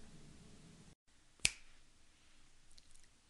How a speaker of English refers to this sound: Did you hear that? That was a listen. It was a split second of me snapping my fingers, and you may have listened to that segment.